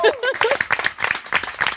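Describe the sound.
An audience at a poetry slam applauds the event's moderator, with a steady dense patter of many hands clapping and a few voices calling out over it at the start, holding fairly loud throughout.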